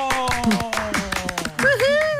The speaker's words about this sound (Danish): Og nu synes jeg lige, at vi skal smide, hvad vi har i hænderne og give en stor klapsalve til